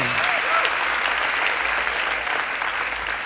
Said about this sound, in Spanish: Así si van a aplaudirle al Señor, apláudanle con todas sus fuerzas.